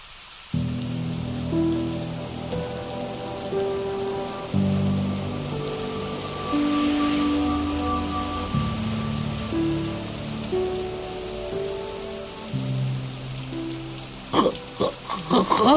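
Heavy rain pours down steadily in a dense, unbroken hiss, with sustained low musical tones shifting underneath and a few sharper spatters near the end.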